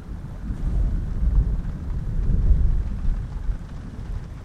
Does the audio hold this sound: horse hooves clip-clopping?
no